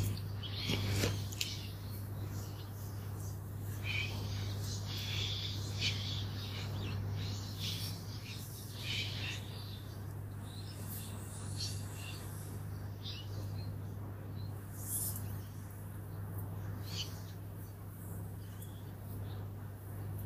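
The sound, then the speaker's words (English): Birds chirp and sing intermittently throughout, short high-pitched calls scattered over a steady low hum, with no one speaking. “I love listening to birdsong.”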